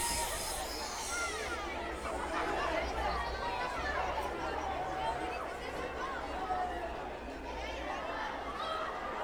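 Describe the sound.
A steady hubbub of many voices chattering at once in Spanish, indistinct and continuous, with a low, constant rumble of the sea underneath, on a beach in Spain where people play volleyball.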